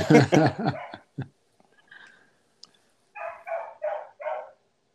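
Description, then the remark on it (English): A dog barks four times in a quick, even rhythm, moderately loud, after an earlier flurry of harsh vocal yelps and a brief quiet stretch. “Just, I was listening to the dog and I'm like, and that's why I have to drive away from my apartment when I record podcasts.”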